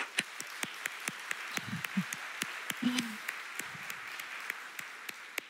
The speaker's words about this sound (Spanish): Muy bien. Desen un aplauso.